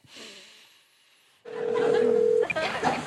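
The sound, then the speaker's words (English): Touch-tone keypad dialing tones on a Movie Phone call, entering the first letters of a movie title: a long, steady electronic beep over a hissy, noisy phone line, then a few short tone blips. A quiet stretch comes first. “Using your touchtone keypad, please enter the first three letters of the movie title now.”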